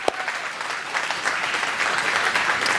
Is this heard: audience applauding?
yes